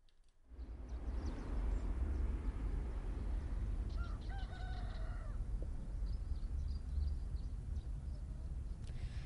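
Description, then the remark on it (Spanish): In the morning, in an area near a volcano, a rooster crows once over a steady outdoor rumble, with small birds chirping faintly in the background throughout. No one speaks. “Se oye el gallo. Se oyen los pájaros.”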